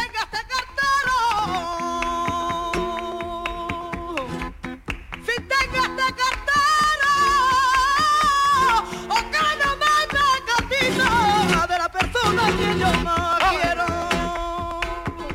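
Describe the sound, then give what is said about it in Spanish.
A lively flamenco bulería from Jerez plays loud and continuous, with sharp rhythmic handclaps cracking through a sustained, melismatic sung melody over accompaniment. “ponemos un ejemplo de la bulería de Jerez claro.”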